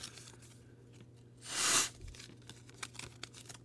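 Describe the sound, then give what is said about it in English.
A single quick rip of paper, torn to mimic opening an envelope, a loud burst lasting under half a second, followed by faint crinkling and rustling amid quiet. “can we pretend to open an envelope?”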